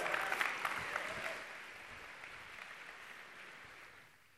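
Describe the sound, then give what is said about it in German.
A crowd claps to welcome a speaker onto the stage: a dense, steady burst of applause that starts strong, then gradually thins and fades over a few seconds, with no one speaking. “Applaus.”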